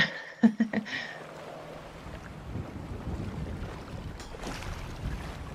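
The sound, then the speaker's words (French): Ambience aboard a small sailboat: a few quick knocks and clatters at the start, then steady wind rushing against the microphone with low water sloshing beneath, and no voices. “Et sinon, bah, pour, la petite visite du bateau, il y a un petit réchaud pour faire chauffer de l'eau.”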